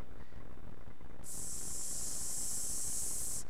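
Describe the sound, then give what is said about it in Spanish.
A voice makes a long, steady hiss imitating air escaping from a balloon being deflated with a needle, lasting about two seconds, fairly loud over a quiet background murmur. “Y por 40 largos años empezó Dios con una agujita a sacarle aire a ese globo.”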